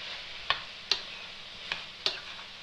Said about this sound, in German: wieder dazwischen umrühren, dass da nichts anbrennt. Ich habe zwar eine beschichtete Pfanne